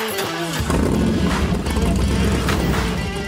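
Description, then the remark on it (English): A car engine cranks briefly, then catches and settles into a loud, steady rumbling idle, filling the rest of the moment with dense low mechanical noise. “Turn it over.”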